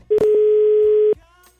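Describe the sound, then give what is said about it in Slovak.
A steady electronic phone ringback tone holds for about one second, loud, with a few faint clicks around it before it cuts off, as a man phones his partner to ask where his keys are. “Tak som sa rozhodol, že zavolám osobe, ktorá je vždy na toto najpoverenejšia”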